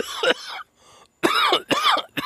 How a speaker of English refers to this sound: I double dog dare you. Get ready for the cough, guys.